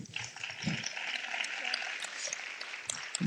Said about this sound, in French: Quelques applaudissements.